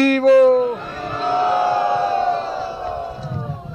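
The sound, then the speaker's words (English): An audience shouts together in one loud, sustained collective yell, starting with a rising pitched cry and holding as a dense mass of voices for several seconds before fading slightly. “Let's hear a big ball from the audience.”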